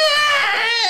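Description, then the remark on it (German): A human voice imitates the yowl of mating cats: one loud, drawn-out wail with a slightly wavering pitch, lasting under a second with no talking around it. “Und dann gehst du raus schauen, da, da kommt der Papi in die Tür und dann merkst du, ach, das ist eine Katze, die bumsen.”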